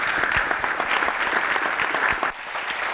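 Dense audience applause fills the space, many hands clapping steadily at a loud, even level with a brief dip near the end before resuming.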